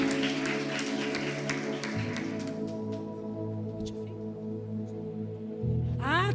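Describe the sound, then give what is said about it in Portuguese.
A crowd claps for a couple of seconds to applaud a woman, the applause fading quickly while sustained keyboard chords ring steadily underneath and carry on after the clapping stops. “Ah, mulher, aplausa ela, porque aplausa o Senhor pela vida dela.”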